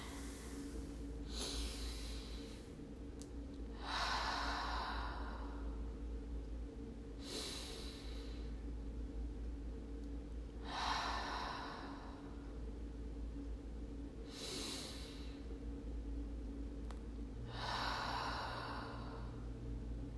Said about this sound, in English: And on your exhale, drop your shoulders, roll them not behind you, but kind of underneath your ears down the side of your body. We're going to share five breaths together here. Let's begin.